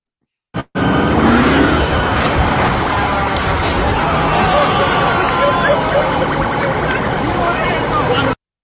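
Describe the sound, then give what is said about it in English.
Loud, dense roar of a car speeding in a getaway chase eluding the police, with sirens wailing through steady engine and road noise for several seconds; the car drives over a median to an overpass, lands on a bus and drives over another bus, continuous with no pauses. “So that is a car on a getaway chase trying to elude the police, drives over like a, a median to an overpass, lands on one bus, and then like drives over another bus.”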